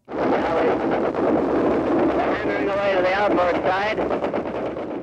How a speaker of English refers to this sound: You hear people yelling, and you hear these planes going over this incredible din of anti-aircraft fire. The uh, correspondent's trying to narrate what's going on, and his voice is, uh, you know, drowned out in different parts by the racket